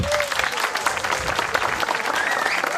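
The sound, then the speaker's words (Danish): A large audience applauds steadily outdoors at the harbour in Allinge on Bornholm, Denmark, dense clapping spread across the whole clip at a fairly loud, even level, with a faint whistle rising above it. “som her var så venlig at give sig selv en hånd”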